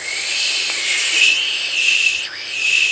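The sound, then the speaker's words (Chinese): A steady, breathy "shhh" hiss made by a voice in an echolocation demonstration at a 2015 TED talk, lasting the whole clip, its tone subtly shifting and sweeping as a notebook-sized piece of cardboard, about 14 inches, is moved nearer to and away from the mouth without touching it. “他有拿出一个纸板，那个纸板大概是呃十四英十四英寸啊、笔记本那么大的一个纸板，挡在他面前，然后发出声音，嘘，然后挡让纸板挡住的时候就有声音，”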